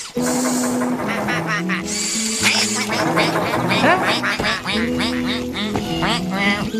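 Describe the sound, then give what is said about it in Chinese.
A flurry of loud, nasal quacks from little ducks overlapping one another in quick succession for several seconds, with steady sustained tones running underneath. “鸭子真的是很有意思，好棒啊！”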